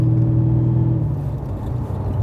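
A Jaguar XJR car with a Mercedes gearbox rumbles steadily, heard from inside the cabin, a low droning hum with a slight shift in pitch partway through as the car drives on, with no voices.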